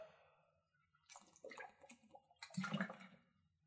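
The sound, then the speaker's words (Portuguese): Someone takes a sip of water, a few wet slurping sounds followed by a soft gulp, heard alone without any talking. “É, e água, sabe bem.”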